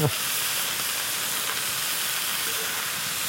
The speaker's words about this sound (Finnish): Siellä hyvin tirisee nuotio. Tämä tosiaan on Luonto Suomen Nokikokit-lähetys ja kello 20 saakka ollaan nuotion äärellä erilaisten reseptien ja ruoanlaiton kerran.